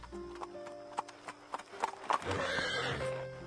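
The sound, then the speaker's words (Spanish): Horse hooves clop in a steady rhythm on a hard surface as a horse stops before the servants' door at the farm Granja de los Tordos at dusk and a rider gets off, then a horse gives a loud, drawn-out neigh toward the end. “Un caballo se detiene ante la puerta de la servidumbre y de él baja un apuesto jinete.”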